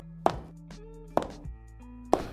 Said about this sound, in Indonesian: High heelsnya terdengar berdarap keluar dari sebuah bangunan.